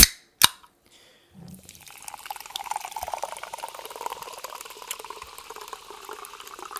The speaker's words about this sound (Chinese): 让我们轻易听气泡水的声音。